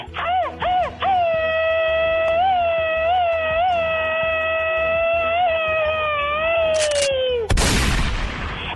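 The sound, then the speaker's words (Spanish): A sound effect, the machine-gun scream of the sexy girl: a few short yelps lead into a woman's long, shrill scream that wavers and holds for about six seconds, then breaks off into a loud, noisy burst of machine-gun fire. “Atwater, California, donde quieren grito ametralladora de la chica sexy.”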